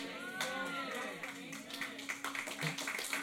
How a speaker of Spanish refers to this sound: Aleluya, si le va a aplaudir, apláudele fuerte. Apláudele fuerte.